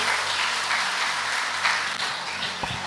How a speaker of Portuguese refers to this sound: Você pode dar a melhor salva de palmas para Jesus?